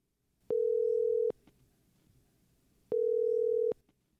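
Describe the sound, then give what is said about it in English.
A telephone tone while a call to a student pastor at a church connects for a Lifeway Students segment: two steady, fairly loud beeps of about a second each, separated by a pause, with faint background noise and no talking. “So here we go. We're, we're dialing it up.”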